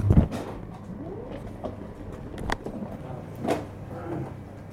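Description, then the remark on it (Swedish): A security X-ray scanner conveyor at a courthouse security checkpoint, carrying a microphone through, runs with a steady low mechanical rumble, broken by a heavy clunk at the start and a few sharper knocks and rattles as items move along. “Mikrofonen får åka genom röntgenapparaten i säkerhetskontrollen.”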